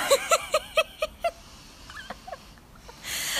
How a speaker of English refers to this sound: I don't know if you can hear that bird, probably.